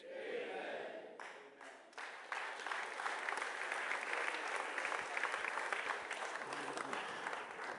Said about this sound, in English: That was a very poor clap offering. You've got to bring the roof down.